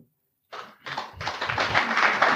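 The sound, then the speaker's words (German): Applause from a crowd starts after a brief silence, following remarks about women's football at VfB, swelling from a few scattered claps into dense, steady clapping that grows louder and fuller. “Da kann man auf jeden Fall klatschen.”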